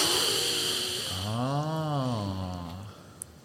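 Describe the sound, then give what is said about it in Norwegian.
One long, deep breath drawn in: airy at first, then turning into a throaty, voiced sound that rises and falls in pitch before fading. No talking. “Og så har jeg, pust, jeg pusta inn hele har Fått alt energien min i, altså fra de, og jeg får gåsehud når jeg snakker om det.”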